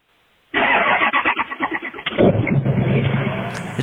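A Ford Power Stroke diesel engine cranks with a quick rhythmic starter chug for about a second and a half, then fires up and settles into a steady, rumbling idle.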